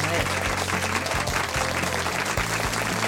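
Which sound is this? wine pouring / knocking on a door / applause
applause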